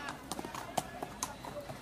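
Horse hooves clip-clop in a quick, steady rhythm, a string of sharp knocking beats at moderate volume, with a faint murmur in the background, as Mulan rides a horse from the village.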